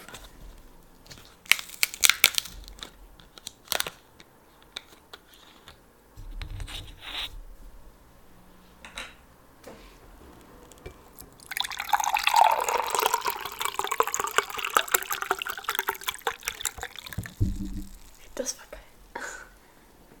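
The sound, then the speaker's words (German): Sounds of a watermelon drink being opened: a few sharp clicks and handling noises, then a sustained fizzing, rushing hiss of liquid for several seconds, with soft whispering. “Ey, Dicker, Bratiwassermelone mache ich jetzt einfach mal auf.”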